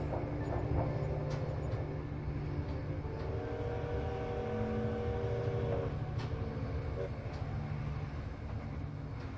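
A steady, low rumble of a train rolling through the night, with a continuous droning hum, faint rhythmic clatter and a few brief high squeals over the constant noise, no talking.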